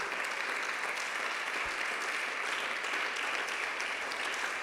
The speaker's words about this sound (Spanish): Mire, amén, denle ese aplauso al rey.